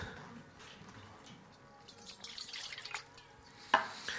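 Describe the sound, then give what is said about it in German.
A child pours syrup into a glass until it spills over, a quiet, steady liquid stream that swells louder toward the end, broken by one sharp clink or splash. No one speaks. “naja, jetzt wisst ihr auch, wieso unsere Kinder den Sirup ausleeren.”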